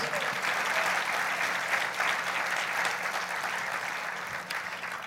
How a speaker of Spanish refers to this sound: ¿Y qué le parece si damos un fuerte aplauso? un fuerte aplauso a ustedes mismos.